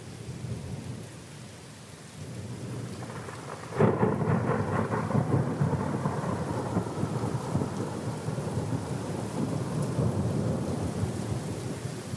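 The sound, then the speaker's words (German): Steady rain hisses throughout a thunderstorm while a loud thunderclap cracks a few seconds in and rolls into a long, deep rumble beneath the heavy downpour, with no voices. “ich glaube, ich muss jetzt gleich sterben. Aber mir der Blitz mitten in die Stirn schlägt.”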